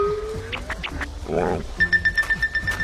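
Three ducklings let out a string of short, high, disappointed calls, ending in a quick run of evenly spaced peeps, with a rising whistle-like tone and a brief rough burst earlier on.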